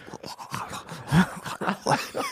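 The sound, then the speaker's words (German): A voice imitates the heavy breathing of a particular man, a run of rough, rhythmic breaths and raspy exhales with a few groaning, voiced edges, with no other talk. “Ja, hat immer so geatmet.”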